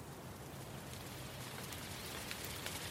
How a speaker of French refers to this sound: Ah non, il commence à pleuvoir.